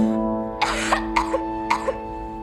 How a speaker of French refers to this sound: Qu'est-ce que t'as toussé comme ça